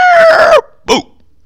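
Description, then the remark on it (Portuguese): Someone vocally imitates a screaming Brazilian firework rocket (rojão): a loud, strained, slightly falling shriek for about half a second, then after a brief pause a short sharp burst like the bang. “O rojão brasileiro é dois tipos. É um grito e o estouro.”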